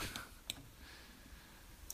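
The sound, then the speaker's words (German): A few short, sharp clicks like a button or key being pressed, the clearest one near the start with softer ones around it, quiet against a faint background hum. “Klick.”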